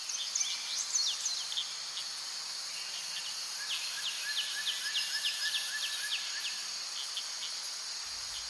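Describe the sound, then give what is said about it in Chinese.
A steady, high insect drone fills a forest while birds call over it with quick, repeated chirps and short descending whistles, continuous throughout, with no voices. “微微睁开惺忪的双眼，树叶婆娑，虫鸣鸟叫，发现自己身处在森林中，是那么纯粹，令人心旷神怡。”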